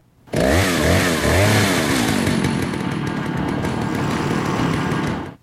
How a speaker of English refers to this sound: Yeah, even after beating the game twice, first on the GameCube, then on the PS2, I still wet myself a little when I hear that hooded chainsaw dude.